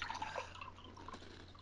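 Iced tea being poured into a glass, a steady trickling splash with bright gurgling tones early on, fairly quiet, with no talking.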